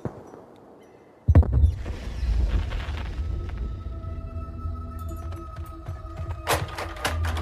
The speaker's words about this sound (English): Gunshots. Huh? Gunshots. I, I think up near the cell phone tower, up on the hill.